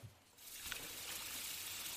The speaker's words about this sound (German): Die Schüssel, die wir jetzt sauber ja, gemacht hab haben, packen wir voll mit Wasser. Mit kaltem Wasser, mit ne? Mit kaltem Wasser.